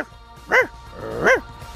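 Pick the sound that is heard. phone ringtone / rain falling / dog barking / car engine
dog barking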